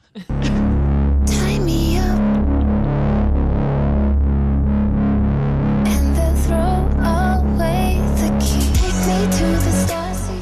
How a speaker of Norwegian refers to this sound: Sangen derimot, ja. den kan du få høre nå.